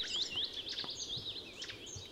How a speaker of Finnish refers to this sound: tää, tää on tuota, tää on ihan yleinen lintu Suomessa ja tässä vaan kun kuulee näitä erilaisia